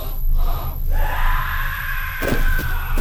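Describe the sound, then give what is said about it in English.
A loud, sustained inhuman screech from a corrupted angel creature struck on the neck by a sword, a shrill tonal wail rising over a rumbling low drone, followed by a few sharp impact-like bursts near the end. “The corrupted angel screeches and bats them away,”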